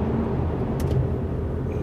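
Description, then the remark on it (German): Steady, loud low-frequency road rumble from inside a car driving through a tunnel, a dense continuous drone with a couple of brief hissing swishes. “Also, nicht wundern, wenn es hier ein bisschen lauter ist. Ich Bin gerade hier im Tunnel, fahre wieder Auto.”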